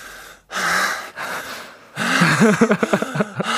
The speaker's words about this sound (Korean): 숨을 헐떡 이는 모습이 백, 백디 하셔가지고.